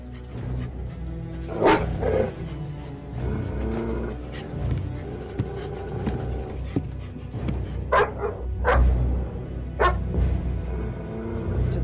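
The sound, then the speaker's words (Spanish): Several dogs at the Auschwitz concentration camp during World War II bark repeatedly and sharply, with occasional yips and whimpers, over a low rumbling background, some barks loud, others fainter. “Los perros no los detectaron porque habían puesto tabaco empapado en petróleo alrededor del escondite.”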